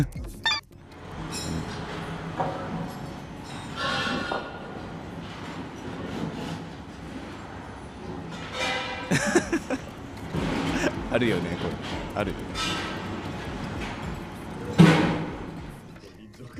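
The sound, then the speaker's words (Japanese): Construction work behind a house rumbles steadily, a continuous mechanical drone broken by occasional metallic clanks and heavy thuds, with people chatting over it. “今我が家の裏で工事しているのでその音を取りました”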